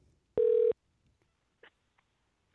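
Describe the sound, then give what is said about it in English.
A loud, steady telephone tone sounds for about a third of a second, followed by a few faint, short clicks and blips on the line before falling quiet. “Holy shit, why is the phone so loud?”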